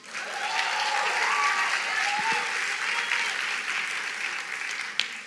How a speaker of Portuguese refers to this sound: Uma salva de palmas para as meninas.